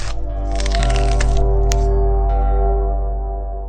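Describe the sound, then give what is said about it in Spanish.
A young goat's neck bone snapping as a farmer, pinning it against a stone, breaks its neck: a dense burst of crunching cracks, then a single sharp snap and a fainter click, all over a steady low droning hum, with no talking. “El granjero aprisionó al cabrito contra la piedra, emitió un suspiro y con un movimiento fugaz quebró el cuello del animal para acabar con su vida.”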